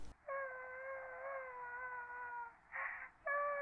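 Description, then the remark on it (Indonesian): A woman cries in a high, drawn-out wail that holds for a couple of seconds, breaks into a brief sob, then rises again, clear with no talking. “kok ada cewek lagi sih suara nangis?”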